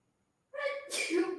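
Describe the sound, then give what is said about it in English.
One loud sneeze: a short voiced intake that bursts into a sharp, breathy explosion, coming right after a moment of silence, with no talking. “bless you, baby.”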